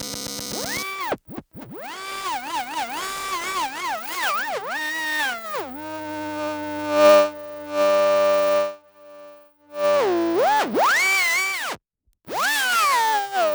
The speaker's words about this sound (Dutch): Dit zijn geluiden uit de richting elektrische installaties.